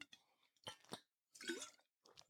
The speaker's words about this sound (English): Now, bear with me a second. I'm going to grab a quick drink of water.